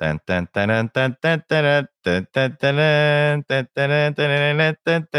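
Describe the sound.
A single voice imitates the sound of a bought video game, singing a bouncy melody using repeated nonsense syllables, with short staccato notes and a few held ones. It is clear, with no other sound.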